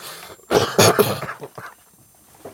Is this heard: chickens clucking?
no